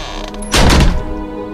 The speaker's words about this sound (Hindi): कमरे का दरवाजा जोर की आवाज से बंद हो गया